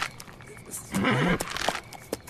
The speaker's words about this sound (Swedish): Har du en häst där?